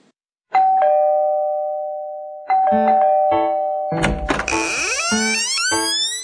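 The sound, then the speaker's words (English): A doorbell rung by trick-or-treaters on Halloween evening chimes a clear two-tone ding-dong, each note ringing out and slowly fading, followed by a noisy burst of rising, sliding tones and clatter over further chimes. “Hear the doorbells ringing. Ding dong, ding dong, trick or treat.”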